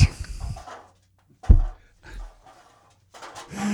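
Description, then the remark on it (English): A pug pants in quick, breathy bursts, with scuffling thumps as it scurries off, then a pause before more huffing breaths at the end. “is that your dog running away from the bad joke?”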